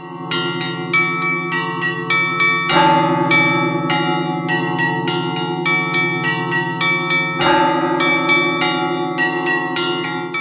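Church bells ring continuously in a rapid, overlapping pattern, several pitched bells struck in quick succession over a sustained resonant hum, loud, with no voices. In a bell tower in Finland, a monk strapped into a frame pulls the mechanisms with hands and feet to set the bells moving.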